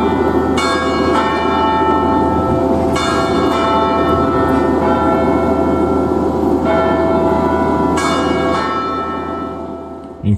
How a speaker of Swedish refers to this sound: Klocktornet ringde nämligen denna melodi 16.00 på helgerna och det var just då som matcherna skulle ta slut. Och faktum är att Pompey Chimes ringer i klocktornet än idag.